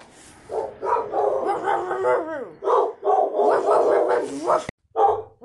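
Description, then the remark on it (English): Several puppies bark and yip in a steady, overlapping stream of high, squeaky calls, fairly loud, with a brief pause near the end before the yapping resumes. “Puppies, look what I see.”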